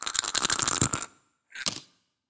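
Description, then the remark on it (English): Dice rattle and clatter in a quick burst of hard clicks for about a second, then after a short pause a second brief clatter as they settle. “Let's uh, have a final roll of okay.”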